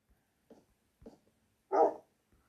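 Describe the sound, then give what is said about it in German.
A dog gives two short, soft woofs followed by a louder, fuller bark, spaced roughly half a second apart, with no talking in between. “Ja, Hundi, aber ich will noch das mit der Fichtentür erledigen.”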